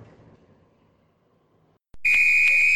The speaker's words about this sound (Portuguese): Apito final e mais uma edição do Eu Sou 10.